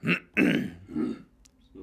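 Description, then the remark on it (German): A person clears their throat, three or four rough, guttural rasps in quick succession, the first two loudest and the last trailing off softer. “Wenn man sich räuspert, stimmlich räuspert.”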